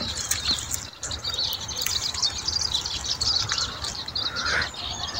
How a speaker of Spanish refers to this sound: escucha todo este sonido en mi casa. Yo cuando estoy enojada vengo corriendo a atravesarme con los sonidos de los pajaritos.